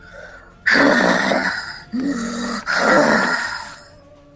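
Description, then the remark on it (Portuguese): A voice imitates the heavy, labored breathing of a large gnoll: three loud, raspy breaths in a row, each harsh and drawn out, with brief pauses between them and no speech. “O maior dos gnolls parece ser bastante afetado por isso, enquanto o corpo dele agora começa a pesar e vocês começam a escutar ele respirando pesado num”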